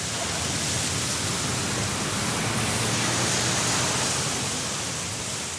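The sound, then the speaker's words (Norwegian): Steady outdoor ambience at the waterfront in Williamsburg, Brooklyn, New York, across the river from Manhattan: a constant broad wash of noise like moving water and city hum, fairly loud and unbroken, with no voices. “Jeg møter han langs eh, vannkanten i Williamsburg i Brooklyn i New York.”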